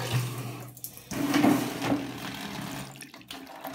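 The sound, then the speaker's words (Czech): Cold water runs steadily from a tap in a bathroom as someone washes, a continuous rushing splash with slight shifts in flow and no talking. “Takže já se meju tím způsobem, že si pustím studenou vodu.”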